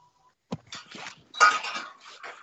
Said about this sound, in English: Yeah. So that's a lot of dishes in the background.